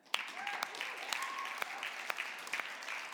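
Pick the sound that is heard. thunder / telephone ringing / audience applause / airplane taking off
audience applause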